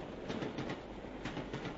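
The Moscow–Alma-Ata passenger train rolls steadily along the rails through Kazakhstan, a continuous rumbling clatter with faint rhythmic clicks, with no voices.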